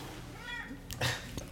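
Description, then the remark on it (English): A cat lets out a short meow with a rising and falling pitch, followed by a couple of brief rustling bumps. “It's the first cat being kicked off a show.”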